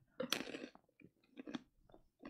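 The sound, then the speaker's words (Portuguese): Crunchy chewing of a salty snack, Ovitos, being tasted, with several bursts of crisp bites and mouth noises spread across a couple of seconds, no talking. “Todo mundo vivendo mastigar, né?”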